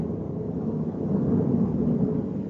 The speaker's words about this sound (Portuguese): passou gente, ou é trovão? De... É um trovão.